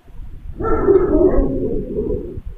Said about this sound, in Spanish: O sea, los perros. Como que no puedes poner ese sonido ahí en el.